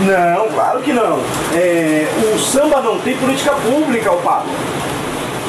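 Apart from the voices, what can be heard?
rain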